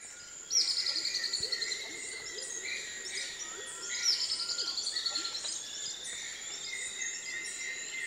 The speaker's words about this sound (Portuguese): É uma choquinha ornada. O seu canto agudo e delicado avisa os outros pássaros que o dia já começou.